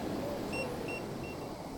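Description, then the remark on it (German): Three short, high electronic keypad beeps sound in an even rhythm as an American woman in beach clothes taps her access code in at the entrance of a coworking space in Agaete, set against a steady wash of outdoor traffic noise. “Eine US-Amerikanerin im Strandoutfit tippt am Eingang zum Coworking Space Agaete ihren Zugangscode ein.”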